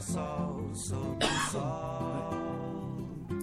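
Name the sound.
coughing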